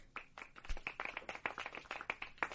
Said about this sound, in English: Clap it up for Jack.